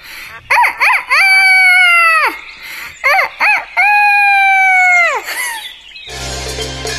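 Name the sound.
rooster crowing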